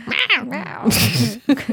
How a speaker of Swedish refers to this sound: Inte undra på att den här katten hade någonting emot dig.